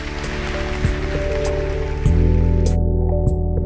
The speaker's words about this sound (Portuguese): Você pode dar uma forte salva de palmas ao nosso Deus?